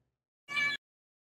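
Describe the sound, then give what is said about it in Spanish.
A single short cat meow at a door, clear, standing alone with silence before and after it. “es que estaba en la puerta maullando.”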